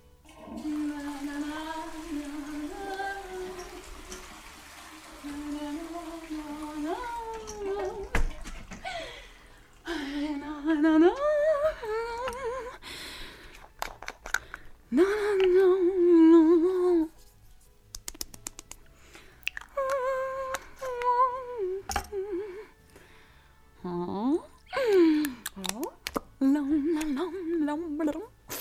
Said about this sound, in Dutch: Eh, het duurt heel lang, maar ik wil toch eens misschien de eerste 30 seconden of zo laten horen. En eh, ja, eh, met geluiden probeert hij heel tijd Happy Birthday te zingen of zoiets.